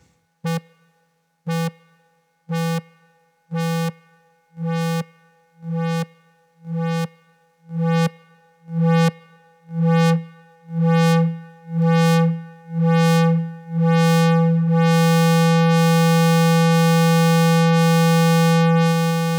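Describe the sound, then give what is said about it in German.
A modular synthesizer repeats one bright, buzzy note at a steady pulse as the envelope's attack is lengthened from a very steep, short value. Each note rings a little longer than the last until they blur together into one continuous, sustained drone, with no voices. “so hört sich dann eine entsprechend andere Hüllkurve an, äh, das ist jetzt ein sehr, sehr steiler, kurzer Attack-Wert und wenn wir den länger machen, wird der Ton auch entsprechend länger und, und das klingt jetzt schon irgendwie anders.”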